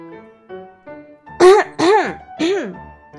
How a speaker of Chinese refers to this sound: 清清嗓子，我们一起来念魔法咒语